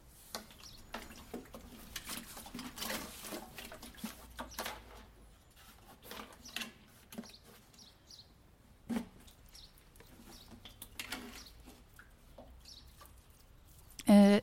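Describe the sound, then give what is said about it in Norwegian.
Water from a heavy, full watering can patters onto plants in a garden in soft, irregular splashes and drips, fairly quiet, with a short louder burst right at the end. “Skal jeg begynne å vanne her borte, da, eller?”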